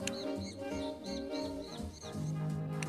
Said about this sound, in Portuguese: Olá, passarinho.